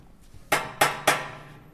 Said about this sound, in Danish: Og nu kan vi lige gå herover til, hvad hedder det, håndvasken, og det er vist de installerer sig til. Men der sidder nogle, sådan nogle små elektromekaniske øh, hamre, som kan spille på de her vaske.